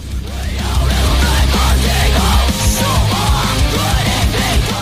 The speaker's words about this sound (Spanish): Las partes de ópera se suplen con guturales, ¿eh?